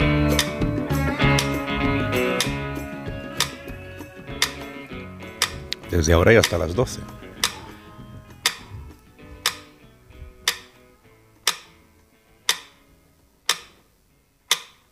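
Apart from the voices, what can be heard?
metronome ticking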